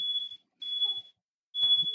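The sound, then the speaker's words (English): A beer truck backing up to a house sounds its backup beeper: three steady, high-pitched beeps at an even pace, each lasting about half a second, with faint rumbling noise underneath. “You have a beer yeah, truck backing up to your house right now.”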